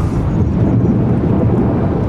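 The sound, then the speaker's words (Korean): A loud, sustained rumble of thunder rolls steadily throughout, deep and dense with a broad low roar and no distinct cracks, filling the short stretch on its own. “열받아서 천둥 타이밍도 놓쳤구만.”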